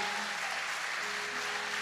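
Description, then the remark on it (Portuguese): A church audience applauds steadily, giving a round of applause to Jesus for a visiting pastor from Ilhéus, Bahia. A dense wash of many hands clapping at moderate volume, with no voices breaking through over the brief stretch. “Então, dando salva de palmas para Jesus,”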